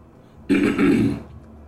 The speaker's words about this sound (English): oh, let me clear my throat.